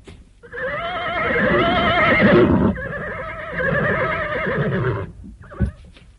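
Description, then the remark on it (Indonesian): A horse lets out a long, loud whinny as riders dismount, its voice wavering for several seconds before breaking off, followed by a brief knock or hoof thud. “Ah, selama Tuhan-Tuhan bertanya dari atas punggung kuda, kami tidak bersedia menjawab.”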